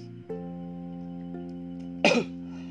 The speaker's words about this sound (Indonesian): nah kita lanjut lagi ya guys ya sorry tadi ada kendala batuk